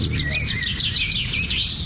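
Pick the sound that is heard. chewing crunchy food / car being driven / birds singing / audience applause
birds singing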